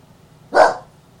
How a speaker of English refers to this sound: Uh, this dog insists that there's somebody out there, and I need to check.